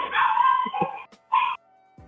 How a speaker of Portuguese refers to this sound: Teus demôniozinhos aí estão latindo. É que meu irmão acabou de chegar, eles estão avisando.